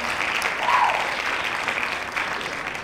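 Dense, steady hand clapping from many people fills the whole stretch, a continuous crackling wash of claps at fairly even loudness with no voices.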